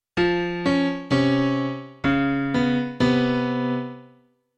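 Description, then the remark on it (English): A solo piano plays a short dissonant passage of five struck chords in a halting rhythm, including a C against a C sharp and a C against a B natural, each ringing out and decaying. The last one sustains longest before fading, clear with no voices. “If we break this down, uh, on the piano on its own. It sounds like this.”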